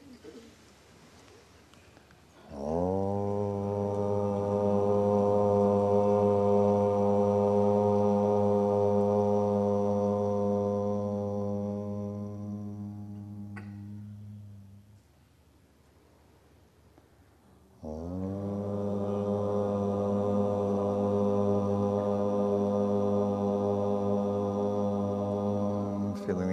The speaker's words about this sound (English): We'll, we'll chant Om um, three times. And chant, chanting is a wonderful way to uh, to soften the hard separation and the, the tightness in the body. So breathing in.